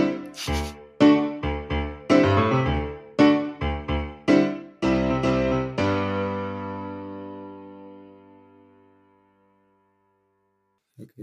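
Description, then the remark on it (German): A short instrumental outro of bright, punchy chords played in a quick rhythm, closing on one long ringing chord that fades out, followed by silence and a faint new note at the very end. “Ihr hört Nein, die Musik im Hintergrund.”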